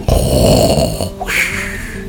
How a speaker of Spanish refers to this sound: Luego, sus padres monstruos irían a su habitación y dormirían con aquellos ronquidos de monstruo.